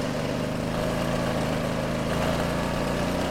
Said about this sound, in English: I present to you the very small Chinese electric scooter. Go around, go around, go around. I'm on a ridiculous Chinese scooter.